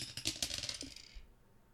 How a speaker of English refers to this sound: I only have a pair of dice. So we have 12 topics. I am going to roll the dice, and we're going to talk about whatever topic comes up.